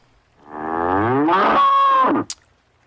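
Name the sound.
cow mooing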